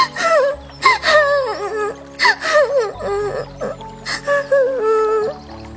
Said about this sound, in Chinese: 拇指姑娘哭得更伤心了。